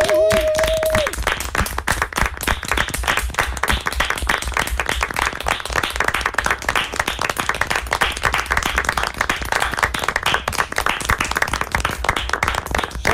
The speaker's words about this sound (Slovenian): In gremo, velik aplauz za vse tam zunaj.